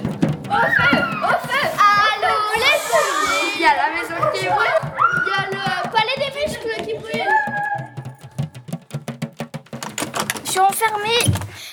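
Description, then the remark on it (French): Children shout and squeal over one another, imitating a panicked theatre audience rushing out after the stage catches fire. A rapid, clattering patter follows underneath. Fairly loud throughout. “Et les spectateurs sont, sont en panique et, sortent très très vite, vite de la salle.”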